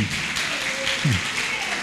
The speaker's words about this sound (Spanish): Dale el aplauso al Rey de Reyes. Muy bien.